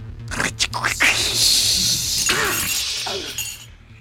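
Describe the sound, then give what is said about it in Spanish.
A loud glass window shatters with a sharp crash, followed by a bright spray of tinkling shards that keeps falling and skittering for several seconds before fading out. “Los cristales, con un sonido de cristal roto,”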